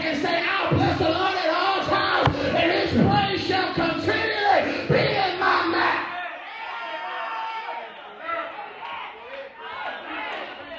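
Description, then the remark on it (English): A large audience on a Sunday erupts in loud, sustained shouting and cheering, dense overlapping voices, easing slightly after a few seconds but continuing as a crowd roar to the end. “Anybody here come to have a shouting party?”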